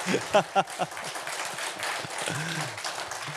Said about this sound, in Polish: Nie wiem, czy to tak jest, że jak e, przyjeżdża pastor zielonoświątkowy, to tak klaszczą, żeby mu było miło?